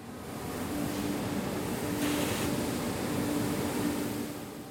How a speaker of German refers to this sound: 130 Kilometer südlich von Plaoru liegt der Seehafen Konstanza am Schwarzen Meer. Ein LKW entlädt gerade seine Fracht im Getreideterminal der Firma Comvex.